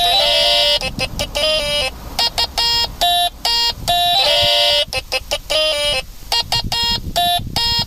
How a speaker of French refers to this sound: Avec un truc qui s'appelle le stylophone. C'est un jouet qui a été inventé en 1967. Un tout petit clavier de 20 notes qu'on active avec un stylo relié à un fil électrique.